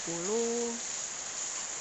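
Rain falls as a steady, even hiss that holds without change for the whole clip, with a short hummed voice sounding briefly at the start.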